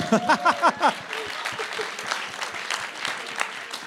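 An audience breaks into steady, dense clapping that keeps going the whole time, with a few brief voiced shouts or cheers at the start, applauding an audience member at a live show.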